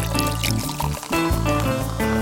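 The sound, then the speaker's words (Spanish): The main ingredient of a cubita mixed drink is poured over ice cubes in a steady, continuous stream lasting about two seconds, fairly loud throughout, with no voices. “Les pongo estos hielitos. Y el ingrediente infaltable para esta cubita que, ojo, no pienso nombrar más, ¿vale?”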